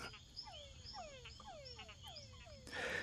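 A nocturnal chorus of male túngara frogs calling in a pond, many overlapping descending whine-like calls repeating rapidly, with a steady insect hum underneath and a brief burst of noise at the end.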